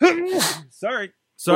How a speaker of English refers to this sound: Bless you. sorry. Bless you, my child. Excuse me, I'm allergic to intergender wrestling.